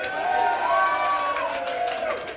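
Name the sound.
audience clapping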